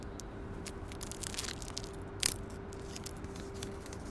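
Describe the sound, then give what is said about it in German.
Crinkly crackling as a fortune cookie is broken open, with one sharp, louder snap partway through, over a faint steady background hum and no voices. “Sie haben Ihren Glückskeks liegen lassen.”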